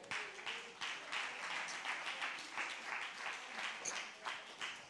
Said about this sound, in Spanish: En el nombre de Jesús, denle un aplauso Señor. Venga.